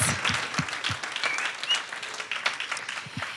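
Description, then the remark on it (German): An audience claps steadily for a crew of musicians, a dense wash of many hands with a few louder individual claps and faint whoops standing out through the roughly three-second burst. “Ihr gebt ihnen schon mal einen Applaus.”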